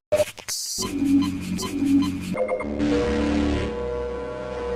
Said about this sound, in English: It's seriously some of the best sound design I've heard in a video game. Few sounds are as iconic to me as the health and HEV recharge sounds